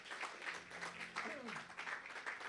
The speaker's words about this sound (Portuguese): Amém, igreja? Glória a Deus. Vamos dar mais uma salva de palmas a Jesus.